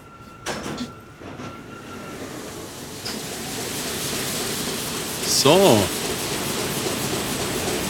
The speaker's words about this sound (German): Wir stehen jetzt hier zwischen zwei Druckermonstren. Maschinen. Ich mal, Maschinen. Ich würde mal sagen, 10 Meter lang